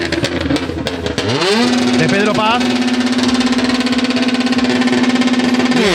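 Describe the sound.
A Citroën DS3 R5 rally car engine screams loud during a race, its pitch sweeping up as it revs hard, then holding a sustained high whine, with a commentator talking over it briefly at the start.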